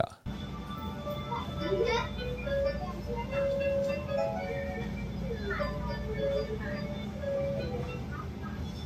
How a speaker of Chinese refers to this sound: 好，那我再大声一点。好，太好太好。这是二零二二年新版全家便利商店的音乐